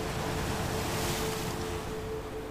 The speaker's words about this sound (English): The sounds of the ocean and crashing waves echo and reverberate around your mind. It clears away any thoughts of your day.